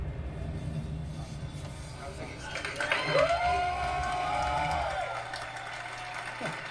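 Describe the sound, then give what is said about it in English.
An audience at an EA press conference for Battlefield V claps steadily throughout, a dense wash of overlapping hand claps mixed with crowd noise, while a sustained tone rises and holds partway through before dropping away. “They're all clapping at?”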